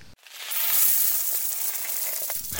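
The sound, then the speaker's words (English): A continuous shimmering cascade of small metallic clinks, like many coins tumbling and spilling together, fairly loud and bright, with a slightly heavier clatter right at the end. “Cue the, cue the the angels and the the know, sound of singing. money falling.”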